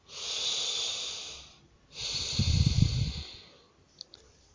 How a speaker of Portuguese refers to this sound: Então, eu respiro fundo.